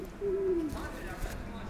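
A single low pigeon coo slides gently downward against a busy outdoor background of murmuring voices and bustle at Circular Quay harbour in Sydney, Australia, amid footsteps, chatter in various languages, boats and seagulls.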